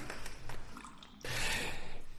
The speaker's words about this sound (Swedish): Är det möjligt att vi eh, bara eh, häller upp lite kaffe? Absolut.